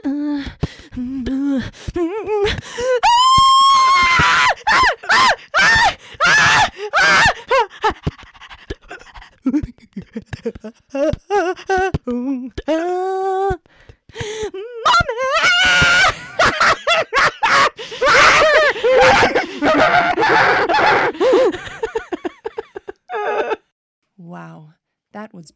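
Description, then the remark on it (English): A wordless song from a debut album: wild screams, yelps, groans and panting gasps, loud, with rapid shifts in pitch and brief pauses between outbursts, building to a shrill climax before fading. “It's one of your songs without lyrics.”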